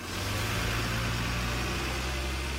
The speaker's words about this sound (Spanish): Oigo motores que hacen silbidos. Hay un cartel grande que dice Krakow Airport y Ana Paula II. Estamos en un aeropuerto grande.